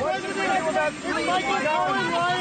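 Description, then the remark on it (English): A crowd boos in a dense, sustained roar of many voices, steady and fairly loud throughout, with no single voice standing out. “You can, you can hear the uh, crowds booing in the background.”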